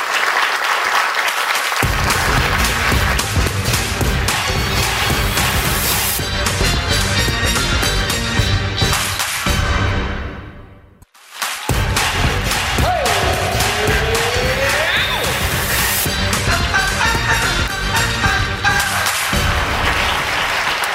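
Steady hand-clapping applause runs for about twenty seconds at an even, fairly loud level, dipping briefly around the middle before resuming, with some tonal sounds mixed underneath.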